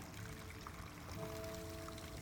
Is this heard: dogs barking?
no